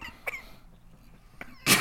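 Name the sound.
coughing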